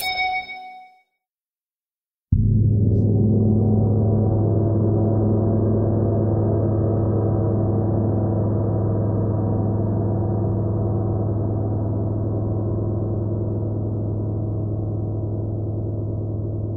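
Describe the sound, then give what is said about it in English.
After a brief bright chime, a 42 inch deep ocean titanium gong is struck once, then blooms into a loud, deep, shimmering wash of low overtones that sustains and slowly fades without any talking. “You're listening to a 42 inch deep ocean titanium gong”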